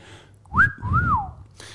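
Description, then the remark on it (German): A single two-part wolf whistle: a quick rising note, then a longer tone that swoops up and glides down. Clear and fairly loud, with no talking. “Der Playboy Pfiff.”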